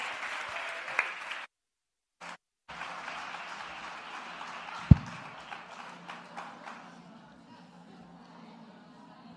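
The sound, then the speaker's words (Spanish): An audience applauds two presenters as they are introduced, with dense, steady clapping that briefly cuts out, then resumes and gradually thins and fades, with a sharp thump partway through. “Un aplauso para ellos.”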